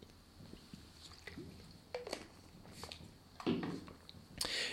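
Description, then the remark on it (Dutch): Someone takes a quiet sip from a drink, with soft wet mouth sounds, small clicks and a brief swallow. There is no talking, only faint handling noise. “Als dus u mij even toeslaat dat ik even een slokje neem.”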